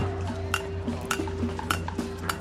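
Protesters bang metal saucepans at a demonstration on an exclusive street in Stockholm, Sweden, a series of irregular clanging strikes with a ringing tone, rising over a steady low outdoor rumble of a gathered crowd.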